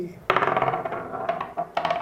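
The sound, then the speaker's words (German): Dice clatter across a hard tabletop, a sharp initial burst followed by a few quicker rattling knocks as they tumble and settle, fairly loud with no voices. “würfeln stattdessen gleich los.”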